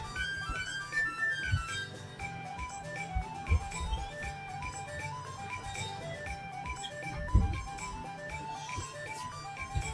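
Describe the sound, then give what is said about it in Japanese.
A kitchen ventilation fan runs steadily, a constant whirring drone with a low hum and faint tonal whine, broken by a few soft thumps; no one speaks. “多分換気扇の音がうるさいかもしれないけど。”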